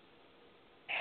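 A caller's single abrupt sneeze comes through a muffled, tinny telephone line, bursting loudly at the very end after a stretch of faint line hiss.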